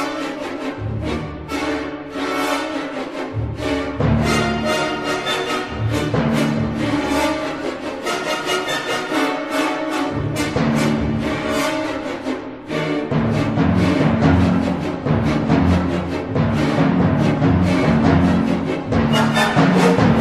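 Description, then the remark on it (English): Loud, dense orchestral music plays alone, its rhythm lurching and shifting irregularly from bar to bar, swelling even fuller and louder partway through. “So no bar is the same as the bar before it. It's very stressful.”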